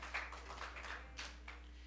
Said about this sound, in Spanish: Hermano, eso, esos aplausos eran para Dios o para mí. ¿Y para mí cómo sería? ¿Y para Dios? Este sí era para Dios, el otro no sé para quién era.